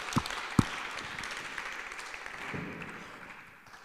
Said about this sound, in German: Wunderschönen guten Morgen auch von mir. Fetten Applaus. Danke an die Boyband heute. Hey, absoluter Hammer.